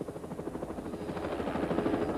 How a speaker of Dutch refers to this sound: Vreselijk lawaai van die helikopter.